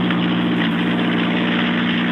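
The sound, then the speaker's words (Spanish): A rough, loud car engine drones steadily at low speed, its deep rumble holding a constant level throughout with no voices over it: Javier Pardo's damaged rally car arriving very slowly on the stage, smoking heavily, its radiator apparently broken. “El coche está bastante humo, no sé si podremos...”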